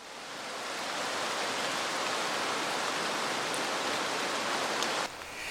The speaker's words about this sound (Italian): Era una mattina di novembre, una mattina di pioggia infernale.